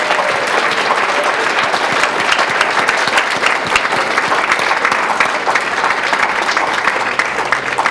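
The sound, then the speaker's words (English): Sustained applause from an audience, a dense, steady clatter of many hands clapping at once, loud and even throughout with no voices standing out. “So, everybody, please give them a big round of applause.”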